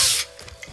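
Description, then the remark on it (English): A short burst of mechanical ratcheting, like machine-shop gears, starts loud and hissy, then drops to a few quieter clicks and whirs, with no voices. “Now, in a good machine shop, that's the sound of things.”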